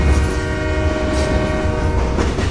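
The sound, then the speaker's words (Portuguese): A steam train whistle sounds steadily over a heavy, rumbling rattle of wheels on iron rails as the train passes a station platform, loud, with no voices throughout. “Ele ouviu o assovio do vapor e barulho dos trilhos de ferro.”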